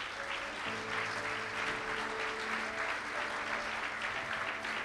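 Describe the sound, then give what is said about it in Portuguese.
A church audience applauds the Lord for his word steadily for about five seconds, a dense, even wash of many hands clapping with a low sustained tone humming underneath. “Quantos podem dar um aplauso ao Senhor por sua palavra?”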